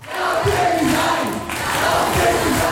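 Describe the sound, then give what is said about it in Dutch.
A crowd of over 150 international student demonstrators and sympathisers chants loudly in unison on the Broerplein by the university in Groningen, demanding the resignation of university board chairman Jouke de Vries; voices blend into a rhythmic, rising and falling roar with no break throughout. “Want ruim een week geleden stonden demonstranten op het Boerplein bij de universiteit.”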